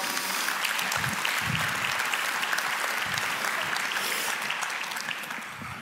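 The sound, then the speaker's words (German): Steady applause from an audience welcoming Frank Lüberding onto the stage fills the whole stretch, a dense wash of many hands clapping at an even level, easing slightly toward the end, with no one speaking over it. “Kommen Sie zu uns auf die Bühne, bitte schön. Ihr Applaus.”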